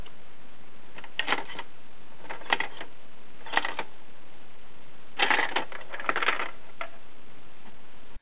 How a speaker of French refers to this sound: C'est très cool de sampler tous ces, tous ces sons, je trouve. Le son d'une caisse enregistreuse, par exemple.